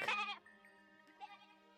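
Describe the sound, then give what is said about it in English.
A goat lets out a loud, quavering bleat, followed a moment later by a softer, shorter second cry, with a steady tonal hum lingering underneath. “They have got a goat, but the goat doesn't make any milk.”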